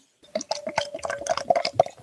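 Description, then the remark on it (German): Beer glugs and splashes as a golden, naturally cloudy beer is poured into a glass, a steady stream with bubbly, gurgling bursts over about two seconds, no voices. “Ich, ich mach's mal auf. Ja, mach doch mal auf. Ich tippe sogar ein.”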